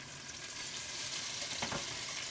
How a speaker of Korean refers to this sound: 어느 정도 감안을 해서 닭발을 익혀주고